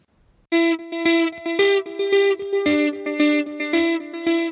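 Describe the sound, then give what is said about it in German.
A short, loud electronic jingle: buzzy, distorted synth chords pulse in a steady rhythm for a few seconds after a brief quiet start, with no voices. “und vorstellen werden wir ihn nach dem kleinen Jingle.”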